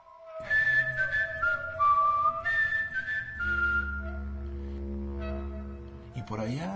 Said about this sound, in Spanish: Recuerdo que empecé a chiflar yo